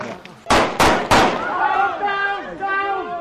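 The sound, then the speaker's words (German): A training grenade thrown at a team during a training exercise goes off as three sharp, loud bangs in quick succession, followed by raised voices calling out in the aftermath. “Nur zwei von sechs Teammitgliedern haben überhaupt bemerkt, dass da eine Granate geworfen wurde.”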